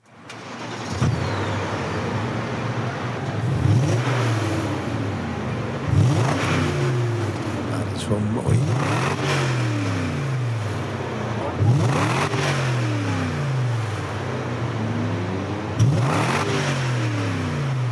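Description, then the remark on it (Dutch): A V8 sports car engine (8-cylinder, 4.9-litre, car of about 1600 kg) revs repeatedly outside the front door, each burst rising in pitch then falling back. There are about five loud revs over a steady rumbling idle, with a brief spoken remark. “V8, hè? V8, eh, ja, tot 100, 4,7 seconden.”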